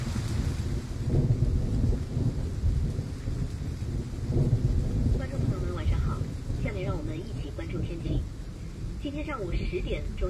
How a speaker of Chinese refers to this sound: 寒潮橙色警报。由于受到强冷空气的影响，我省大部分地区有中到大雨，局部暴雨。夜间至明日白天，大雨转小雨。